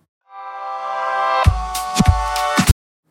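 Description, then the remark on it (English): Two piano chords played in reverse swell up from silence, growing louder until they cut off abruptly, with a few sharp percussive hits landing in the second half. “Those two fade in sounds are actually piano chords that have been reversed.”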